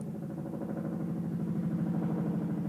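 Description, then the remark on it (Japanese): A helicopter drones steadily overhead, its low engine hum carrying a fast rhythmic thudding from the rotor blades, fairly loud and continuous throughout with no voices. “ヘリコプターが飛んできました”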